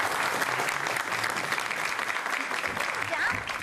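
An audience claps steadily throughout, welcoming two performers for the first sketch, a dense, even wash of many hands applauding at a constant loudness with no voices standing out.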